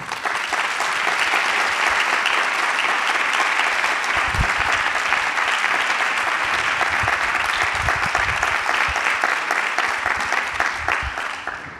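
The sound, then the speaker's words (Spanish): A crowd applauds musicians for continuing to release their songs and records, clapping steadily and loudly for about twelve seconds, a dense wash of many hands with a few scattered low thumps, tapering slightly at the very end. “Y el hecho de que sigáis peleando por sacar vuestras canciones y vuestros discos merece este aplauso, por favor.”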